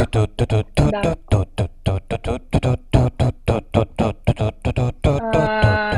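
An upbeat jingle built from punchy, rhythmic vocal-like bursts at a quick steady pulse, closing on a bright sustained chord. Loud and close, with no talking over it.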